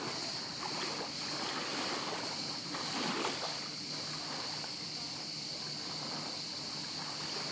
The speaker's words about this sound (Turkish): Hem de bir şekilde size biraz dalga sesi dinleteyim mi? Durun bekleyin. Sadece susup dalga sesi dinleteceğim.